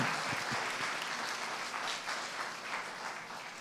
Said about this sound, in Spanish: Dale una ofrenda de palmas al rey.